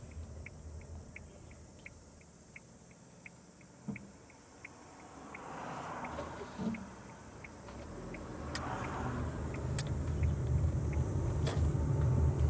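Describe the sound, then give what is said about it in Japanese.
A car drives along a narrow road on a very hot 34-degree day, with a steady low engine rumble and road noise that swells louder toward the end, with a faint regular ticking, like a turn signal, repeating through the first half. “よしとりあえず適当なところに車を止めて落ち着いて適当に走ってちょっといろいろやってこようかなと思います。”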